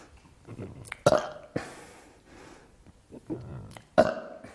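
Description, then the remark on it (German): Two loud, deliberate burps about three seconds apart, made by swallowing air downward as a yoga exercise to clear the throat, each a sudden throaty croak, with quieter gulping and breathy sounds in between. “Was nicht im Yogalehrerhandbuch steht, wo ich die Leute aber auch gerne motiviert, um die Kehle auch nochmal frei zu machen, ist dieses nach unten Luft schlucken und dann einfach ein paar Mal zu rülpsen.”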